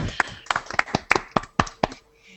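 Brief applause: about eight sharp, crisp claps in a slightly uneven rhythm, fairly loud, then fading out after a couple of seconds.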